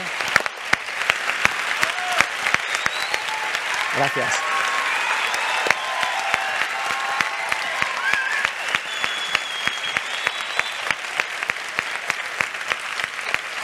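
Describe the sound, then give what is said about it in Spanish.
Steady applause from a packed audience at a presentation of the book Loba Negra for author Juan Gómez-Jurado, a dense patter of many hands clapping at an even rhythm, with a brief spoken word and faint voices surfacing through it. “Quédate y que te dejen tu aplauso, hombre.”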